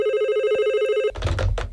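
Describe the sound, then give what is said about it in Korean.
A steady electronic phone ringtone trills continuously for about a second, then cuts off into a brief burst of muffled handling or rustling noise, as a mother phones from a hair salon to hurry the father on the day of a cousin's wedding. “그날은 외사촌 언니의 결혼식 날 엄마와 저는 먼저 미용실에 도착해 있었고 엄마는 미리 재촉 전화를 하시기 시작하셨죠.”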